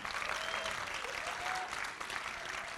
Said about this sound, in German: Vielleicht können wir ihm mal einen Applaus geben.